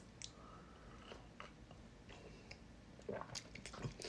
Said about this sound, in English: I'm gonna take a sip.